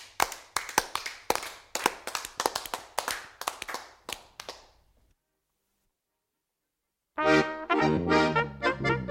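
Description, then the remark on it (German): An audience claps in a quick, steady series of sharp, distinct claps that gradually thin out and fade, then a short silence before a sustained tonal, voice-like sound begins. “Und zum Schluss muss ich Schlüssel nehmen, eure Hände in die Hand, schlagt dieselben oft zusammen, das wird dann Applaus genannt.”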